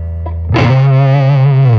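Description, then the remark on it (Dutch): A thick, fuzz-distorted electric guitar note, played with the volume opened up through a Carl Martin reverb, bursts in after a brief quiet hum and sustains loudly with a rich, buzzing tone, washed in reverb before cutting off. “die fuzz shit doet of zo, dan gaat die reverb echt zo ja, het onderdeel van het smeren.”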